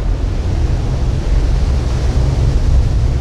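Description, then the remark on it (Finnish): A continuous, heavy roar of rushing water and surging tsunami waves, tens of meters high, from the Krakatau eruption, deep and rumbling, holding steady and loud throughout with no breaks or voices. “Vesi vyöryi joka suuntaan, tuhoten satoja kyliä ja kaupunkeja.”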